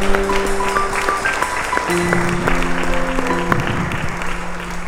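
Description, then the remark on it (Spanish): A church audience applauds with steady, dense clapping that runs for about five seconds, while sustained organ or keyboard chords shift beneath it, during the first week of a COVID curfew. “Des un aplauso porque ustedes son los primeros que están aquí esta primera semana del toque de queda.”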